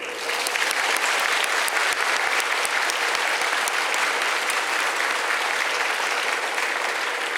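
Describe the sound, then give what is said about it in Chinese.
A large audience claps steadily and loudly for several seconds in tribute to hardworking medical and healthcare workers, a dense, even wash of applause that holds its level throughout with no voices over it. “今天，我要借用各位的双手，再一次给我们所有辛苦的医护人员。最大的掌声。”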